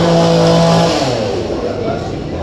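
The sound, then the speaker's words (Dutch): A loud chainsaw revs with a steady, buzzing whine for about a second, then its pitch drops and the motor sputters and rumbles unevenly at a lower idle. “Ondertussen hebben we een kettingzaag.”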